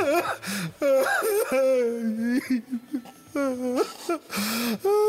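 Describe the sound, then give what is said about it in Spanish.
A voice performs exaggerated fake crying, with wavering, sobbing wails and whimpers broken by short gasps, loud, continuing in bursts for several seconds. “A ver cómo lloro yo, ¿vale?”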